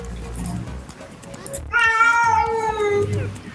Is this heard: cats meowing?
yes